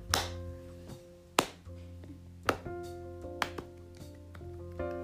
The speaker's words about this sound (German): Jetzt klatscht sie hier zehn Minuten lang. genau, so viele, wie ich gerade geklatscht habe, seid ihr jetzt an Zuhörern.